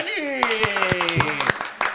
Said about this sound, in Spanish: Reciban con un fuerte aplauso a nuestro Rumi Honorario